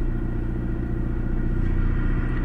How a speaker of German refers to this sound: Hier kommt gerade ein Auto näher. Es wird langsamer. Seid ihr schon da? Schwarz, Kennzeichen aus Kiel.